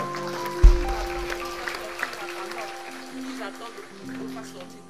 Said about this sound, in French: On peut applaudir le Seigneur encore.